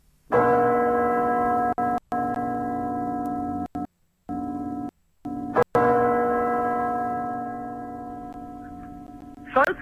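A loud, sustained school bell rings with a bright metallic tone, cutting off briefly several times before resuming, then stopping near the end.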